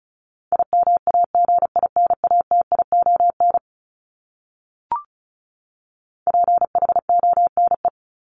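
Rapid Morse code beeps at 35 words per minute spelling a common English word, in one steady, mid-high pitch, keyed in two quick bursts separated by a pause of silence with a soft click. No voices are present.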